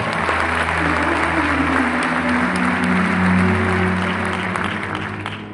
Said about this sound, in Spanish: ¿Cuántos quisieran pararse aquí a hablar? A ver, gracias. un fuerte aplauso para ustedes, por favor.